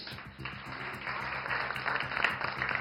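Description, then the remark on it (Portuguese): A crowd applauds in a steady, dense wash of clapping that holds for a few seconds and swells slightly louder toward the end, with no voices over it. “Eu quero aplausos.”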